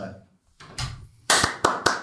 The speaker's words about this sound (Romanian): Gata? Gata să dau din palme, tipa, sau cum?